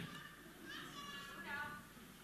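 A young child cries in the background, a thin, wavering wail that rises and falls over a couple of seconds, fairly faint and somewhat distant.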